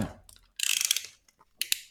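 A utility knife blade being pushed out to cut open a small antistatic bag: a rapid run of sharp, bright ratcheting clicks for about half a second, then a shorter burst of clicks after a brief pause.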